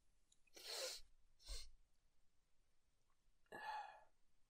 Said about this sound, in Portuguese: Eita, pô, que vontade de espirrar do caralho do nada.